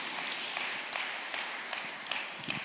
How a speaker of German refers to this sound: Wir können ja Jesus schon dafür mal einen Applaus geben, weil es so wahr ist.